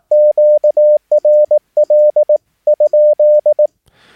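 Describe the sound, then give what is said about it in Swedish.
A steady mid-pitched Morse code tone keys out QRL? in four clear groups of short and long beeps, loud and alone, ending in a faint burst of static. QRL? is sent before transmitting, after listening on the frequency, to ask whether the frequency is free. “Och så innan man sänder, då sänder man QRL? frågetecken.”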